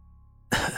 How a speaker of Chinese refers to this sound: 老头咳嗽了一声